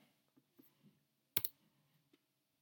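A single sharp, papery pop of a pencil point punching through a folded sheet of white paper to mark the vertices of a drawn polygon, surrounded by a few faint, scattered taps and rustles in otherwise quiet surroundings.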